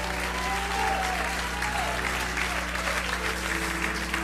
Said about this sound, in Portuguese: Isso merece uma salva de palmas maior, merece um grito muito maior.